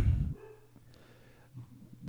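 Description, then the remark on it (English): A female dog barks in a few muffled bursts, with a heavy bark at the start and softer ones near the end, against a quiet background. “a fucking dog is gonna die. You guys can hear that. I know you can.”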